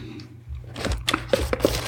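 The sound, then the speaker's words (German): The cardboard box of an Apple HomePod Mini being opened: a series of crisp crackles, rips and scrapes of stiff cardboard over about two seconds, with sharp transients, all over a low steady hum. “Wir öffnen den Cartoon.”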